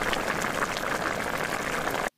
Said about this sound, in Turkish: Çorba kaynaya dursun.